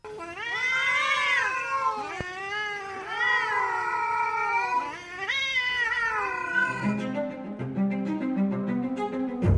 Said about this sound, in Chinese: 空地成了一个大垃圾场，流浪猫们开始聚集在这里。流浪猫渐渐的占领了这片地区，到了发情期，还会发出凄厉的叫声，尤其是在淅淅沥沥下着雨或者刮着大风的夜晚，更是听得让人毛骨悚然。